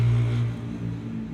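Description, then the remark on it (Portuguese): A motorcycle roars past, its engine a loud low droning hum that eases in pitch and volume as it moves away. “Moto passando.”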